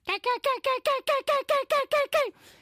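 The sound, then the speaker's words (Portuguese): A person imitates a bird call with about ten quick, squeaky chirps in a steady, even rhythm, clear, trailing off into a soft breathy sound at the end. “Há outros, como o psicólogo, que faz assim.”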